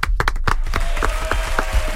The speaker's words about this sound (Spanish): Así que para Catoni, vaya este aplauso.